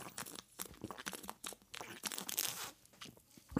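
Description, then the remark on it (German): A bottle of Herforder Pils beer, chilled in the fridge, being opened: a stretch of crinkly, crunching handling noises and sharp clicks, with a brief burst of fizzy hiss near the middle, moderately loud with no talking. “mache ich mal wieder eine meiner alten Traditionen auf, nämlich ein Bierchen köpfen. Heute gibt es mal einen Herforder Pilz.”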